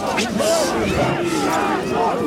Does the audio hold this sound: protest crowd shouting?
yes